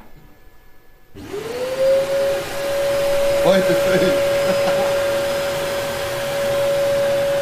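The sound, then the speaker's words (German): The blower motor of an anti-gravity treadmill spins up after a second of quiet, rising in pitch, then settles into a loud, steady whine and rushing air as it inflates the treadmill's air bubble; a voice speaks briefly over it. “Jetzt bläst er quasi diese Bubble.”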